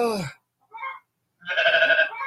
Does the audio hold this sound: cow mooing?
yes